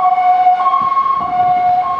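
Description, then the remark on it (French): A fire engine siren wails loudly as it passes by, its two-tone call alternating between a higher and lower pitch over faint road rumble, with no one speaking. “évidemment, quand je fais mon podcast, il faut qu'il y ait des pompiers qui passent.”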